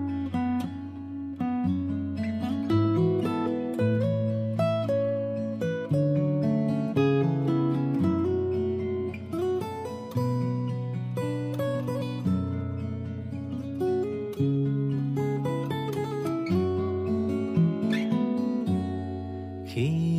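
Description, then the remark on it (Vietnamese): The instrumental intro of a listener-requested song plays steadily and fairly loud, with sustained bass notes, layered melodic instruments and light percussive accents, and no voices yet. “À, và ngay sau đây thì xin mời quý vị chúng ta hãy cùng à, thưởng thức ca khúc này ạ.”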